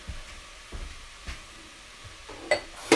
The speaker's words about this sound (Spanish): Lo importante y lo sabroso es hacer el sofrito primero. Y ahora vamos a agregar el agua o el caldo